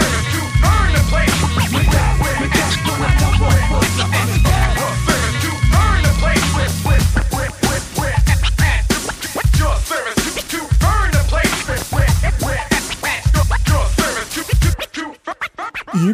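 French rap music plays loudly throughout, a dense, punchy beat with turntable scratching and sharp rhythmic hits, dropping away abruptly in the last second.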